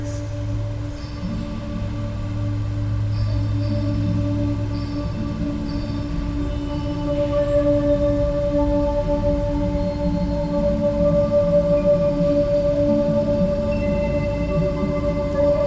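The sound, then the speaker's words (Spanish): "Sirenas", a sound piece of Espejo Plasmat, a monumental string instrument, transmitted to the sea as an offering in Bahía Magdalena, Baja California Sur: sustained, droning tones hold a steady pitch over a dense low rumble, with faint higher overtones shimmering throughout and no voices. “Sirenas, pieza sonora del espejo Plasmat, un instrumento monumental de cuerdas.”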